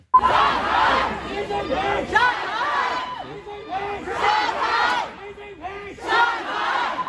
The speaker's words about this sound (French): avait commencé à prendre un tournant politique puisque les plus audacieux euh, s'en sont même pris au pouvoir en place en criant Xi Jinping démission, euh, abat le Parti communiste chinois, ce qui est complètement euh, fou en plein cœur de Shanghai.